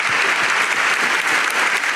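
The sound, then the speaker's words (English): An applause sound effect of steady crowd applause, a dense wash of many hands clapping at an even, fairly loud level throughout with no pauses or voices. “I got to dig up a big applause because it's been a minute, man.”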